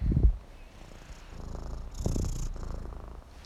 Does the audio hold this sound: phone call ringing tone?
no